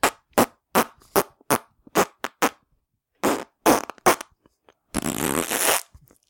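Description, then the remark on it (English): A rapid string of short, punchy fart noises, about a dozen quick bursts, then a longer, drawn-out sputtering one at the end. Loud, with no talking. “It's fart noise, Not a breath.”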